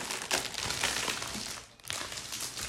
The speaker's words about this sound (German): Also entschuldige Knistern, ich mache mir gerade so ein Paket Waffeln auf.